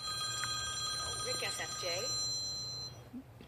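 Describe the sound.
A phone rings with a steady, sustained electronic tone that carries through the whole moment. Muffled voices murmur faintly beneath it over a low background hum.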